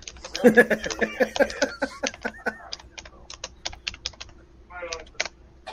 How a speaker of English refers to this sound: Uh, no, that that's a mechanical keyboard. That's not a typewriter. But I don't care for it. Sounds like a typewriter.